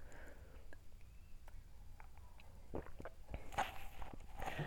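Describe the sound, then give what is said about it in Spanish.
Someone quietly sips hot chamomile tea, with soft mouth sounds, a few small slurps and clicks, and a faint swallow against an otherwise still background. “Disculpen, tenía que tomar un sorbo de mi té de manzanilla porque ya la garganta se me estaba secando.”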